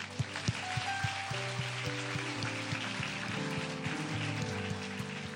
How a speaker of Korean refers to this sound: 아, 그리고 또 하나 정말 박수 치고 싶은 우리 말레이시아 영혼들, 말레이시아 교회들. 어, 되게 힘겨운 시간을 보냈지만 모이자 할 때 다섯 교회가 다 같이 모였고 다 같이 예배하며 함께 정말 이제 살 용기를 얻고 돌아갔는데 우리 여기 어, 우리 함께 저기 있지 못하지만 영으로 함께 말레이시아 교회들을 응원하며 함께 박수로 응원합시다.